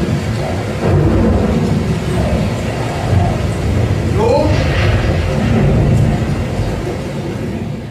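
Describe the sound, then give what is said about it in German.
A thunderstorm with rain in the harbour district of Cape Town: steady, dense rain hiss fills the scene while deep thunder rumbles beneath it, loud and continuous throughout, with a brief sweeping tone midway. “Nun läuft er wankend und schniefend bei Regen und Gewitter durch das Hafenviertel.”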